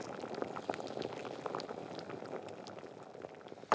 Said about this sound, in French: Laver un kilo de pommes de terre à chair farineuse plongez gelé dans une grande casserole d'eau fraîche et salée. Portez l'eau à ébullition.